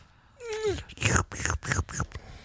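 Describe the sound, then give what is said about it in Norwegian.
A brief voiced moan gives way to a quick series of four or five wet, smacking slurps made with the mouth, imitating a dry mouth, fairly loud. “det er god lyd å ha i øret. Slurpelyd.”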